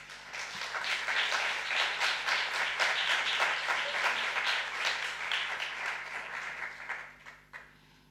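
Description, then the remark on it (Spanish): Sustained audience applause at a live music performance, welcoming a voice-and-guitar performer back to play: a dense wash of many hands clapping steadily at moderate volume, tapering off with a few last scattered claps at the end. “Pues venga, eh, no podemos tener más ganas de, de escucharlo, así que con este aplauso retoma”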